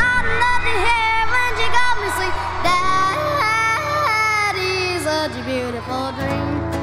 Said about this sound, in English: It's always a pleasure to hear you yodel.